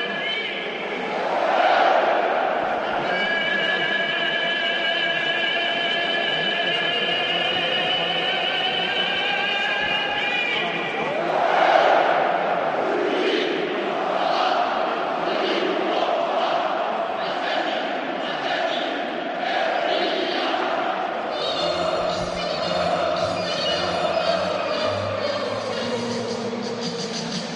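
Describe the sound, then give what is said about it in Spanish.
A huge stadium crowd at San Mamés sings the Athletic Club anthem a cappella, thousands of voices holding long, swelling melodic lines in a loud, steady, unaccompanied chorus that keeps going throughout. “Es el sonido, uno de los sonidos más bonitos que hay en el fútbol español, el himno del Atlético en San Mamés.”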